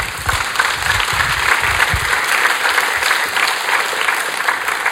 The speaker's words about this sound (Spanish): Ahora, usted aplaude.